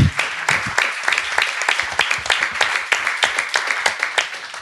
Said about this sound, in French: On peut l'applaudir. Elle est dans le public.